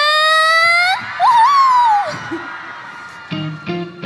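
A crowd screams in welcome: a long, piercing shriek gives way to a wavering, rising whoop, then the cheering thins into a murmur before short, sharp bursts of yelling near the end.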